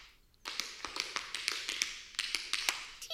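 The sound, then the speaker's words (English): Quick, crisp taps of hard-soled tap dancing shoes on a floor, rattling out in an irregular flurry of sharp clicks, with no talking. “Lisa learns the key to tap dancing”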